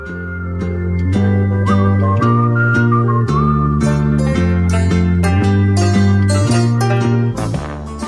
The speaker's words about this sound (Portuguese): Esse assobio, cara. E esse aqui é o um assobio Tarantino, tá ligado? É Velho Oeste e é Tarantino.